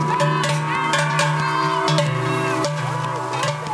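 Large Swiss cowbells clang steadily as Trichler bell ringers swing them beside spectators and alphorn players along a night run across the lake toward Silvaplana, producing a dense, rhythmic metallic ringing with overlapping clanks and sustained tones, loud throughout with no voices.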